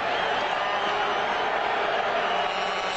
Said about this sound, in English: Second and ten. The Calgary partisan crowd urging their defense.